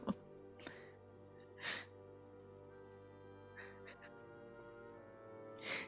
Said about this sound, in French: On entend, on entend. Ouais. Moi, je trouve ça beau comme musique de fond, un chat qui miaule.